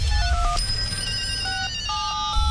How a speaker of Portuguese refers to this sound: Ixi, aí tem uma sopa de letrinhas, tem alarme ali, PL, KM. Já tem até alarme para avisar do horário na sexta-feira.